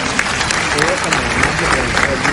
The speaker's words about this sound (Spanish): entre gritos y aplausos de los ciudadanos que acudieron a la presentación, el canciller firmó cada uno de los libros que adquirieron los ciudadanos.